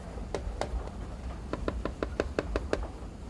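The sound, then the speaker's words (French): A beak taps lightly on the glass pane of a train carriage door: a few scattered clicks, then a quick run of about eight crisp taps, faint over a low background rumble with no talking. “Elle est tirée de ses pensées par un petit bruit sur le carreau de la porte du wagon.”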